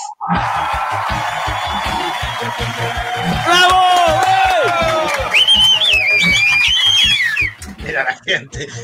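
A recorded applause sound effect: a crowd roars with cheering, whoops and shouting over a dense wash of applause, rising to high-pitched whistles and yells before cutting off abruptly near the end.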